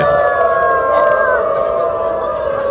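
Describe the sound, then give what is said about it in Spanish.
A large crowd of people who consider themselves dogs howls together like dogs, several long overlapping wails held steadily and loudly for the whole stretch, with no talking. “Y escuchemos cómo gritan ellos. Ellos sienten que son perros.”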